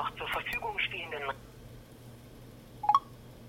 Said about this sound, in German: So, ich habe mal aufgelegt.